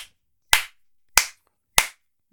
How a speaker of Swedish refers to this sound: applåderar och jag blir så glad.